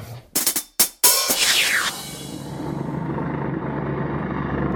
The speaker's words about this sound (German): Also wir wissen nicht genau, wen die suchen. Aber wir sind umzingelt. Aber wir sind umzingelt von Cops. Helikopter am Himmel und vorhin Polizeiauto in der Nachbarschaft mit Taschenlampen Ecken abgesucht haben.